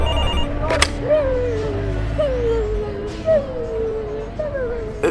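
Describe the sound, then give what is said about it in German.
A telephone rings with a repeating electronic tone that warbles and slides downward, sounding four times at a steady pace, moderately loud over a low background rumble. “Ich gehe kurz ans Telefon.”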